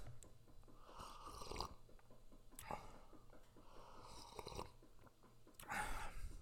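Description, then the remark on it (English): Quiet slurping sips of coffee as the coffee is being finished, four airy draws spaced a second or so apart over a soft low hum, with no talking. “Here is a little coffee sip for you.”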